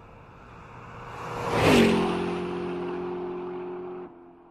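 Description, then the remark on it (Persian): A car engine revs up as the driver gets in and speeds off home, a loud whooshing surge followed by a steady droning hum that fades gradually as it drives away. No one speaks. “پدرام پیروزمندانه برایش دست تکان داد و سوار ماشین شد و با سرعت راهی خانه گشت”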